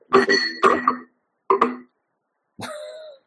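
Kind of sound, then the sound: household object, glass clinking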